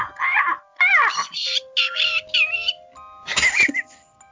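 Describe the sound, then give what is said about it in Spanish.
A person imitates a crow with a quick run of six or seven harsh, strained caws, loud, with short gaps between calls and nothing else behind them. “Soy un cuervo. Soy un cuervo un cuervo.”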